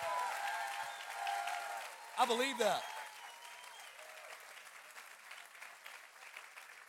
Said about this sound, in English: If you believe it, come on, give him a 10 second hand clap.